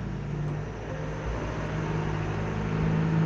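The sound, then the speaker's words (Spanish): A motorbike or truck goes by, its engine a steady low rumble with a humming tone that swells slightly toward the end. No one speaks over it. “Disculpa, una moto ahí, o un camión, disculpa.”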